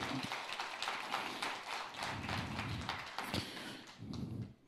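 An audience applauding for the Lord in the morning: steady, dense clapping from many hands that holds at an even, fairly loud level for several seconds, with a few sharper bursts before it tapers off.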